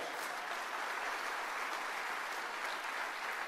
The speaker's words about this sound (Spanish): Y hay otro fuerte aplauso al Señor.